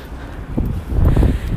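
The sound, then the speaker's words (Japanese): A strong sudden gust of wind buffets the phone microphone during a recording, a low rumbling roar that swells after a moment and keeps thumping unevenly to the end, loud. “すごいですよたまに突風がビューって吹きますね”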